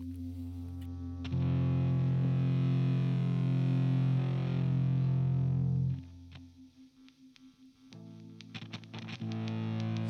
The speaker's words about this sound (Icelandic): við ætlum bara að enda á lagi sem þeir tóku á músiturunum þetta árið